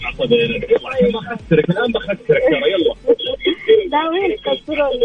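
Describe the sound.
A narrow, tinny phone-line voice talks continuously with an echo as the call feeds back through a radio left on, the speech blurring into a faint repeating layer.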